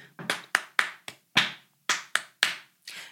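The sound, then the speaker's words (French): A series of about nine sharp hand claps in an uneven rhythm, some quick pairs and some spaced apart, clapping out the syllables of the French sentence "Nous allons au parc", with no voices. “Donc là, il entend clairement tous les mots séparés et aussi des syllabes allons, donc, l'enfant qui pratique de la musique va pouvoir taper ce qu'il entend.”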